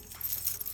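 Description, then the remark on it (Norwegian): Metal ice cleats shaken close to the microphone, a dense bright jangling of small chains and spikes rattling continuously with quick irregular pulses, no voices. “Dette er lyden av broddene.”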